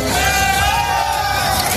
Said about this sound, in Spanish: Así suena el momento en el que uno de los tractores que participan en la protesta vuelca un camión con frutas y hortalizas españolas.